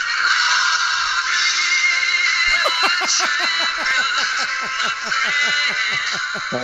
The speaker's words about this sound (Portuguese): Tá ouvindo isso? Tô. Tá. É pra ser os fogos de artifício isso?